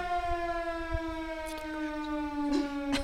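A civil defense air raid siren, of the kind sounded on the first Wednesday of the month, wails steadily, its harmonic-rich tone holding and slowly dipping in pitch, loud and sustained over faint background noise with a few brief clicks.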